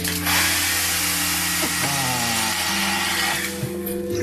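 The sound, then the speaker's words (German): A hair dryer runs steadily and loudly for a few seconds, a constant airy roar layered with a humming motor whine whose pitch shifts slightly. No one speaks. “Nee, der Föhn klingt anders, warte. Der Föhn äh, klingt so.”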